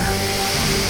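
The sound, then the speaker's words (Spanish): A strong, steady rush of blown air, loud, a continuous whooshing as the wolf Salvaje blows at the pigs' wooden house, with no voices over it. “Dijo Salvaje para nuevamente tomar aire y soplarle a la casa.”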